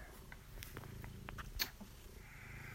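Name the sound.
domestic cat purring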